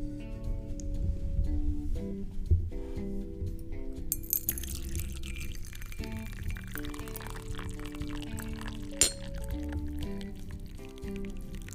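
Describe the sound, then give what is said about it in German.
Hot East Frisian tea is poured into a cup over two pieces of rock sugar, a steady trickle with faint crackling and a brief sharper snap near the end, over a low continuous tonal hum. “Ich hoffe, man konnte das Knistern gut hören.”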